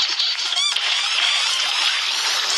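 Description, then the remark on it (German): A video game's small blue slime monster squeaking, a dense, shrill chorus of overlapping squeals running continuously throughout, with a quick rising chirp near the start. Loud, with no talking. “Und vor allem man hört man ein bisschen den Sound, so ein Quietschen, so ein bisschen so.”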